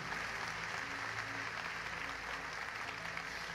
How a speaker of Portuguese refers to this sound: Dê um aplauso bem forte ao Senhor nessa noite, nesta manhã.